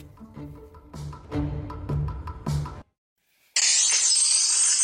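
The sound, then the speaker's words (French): A short musical phrase of plucked notes stops, and after a brief silence a loud, bright cascade of clinking gold coins pours out continuously until the end, with no talking; a sound effect played on CNews to introduce a segment on the price of gold. “Écoutez. C'est l'or.”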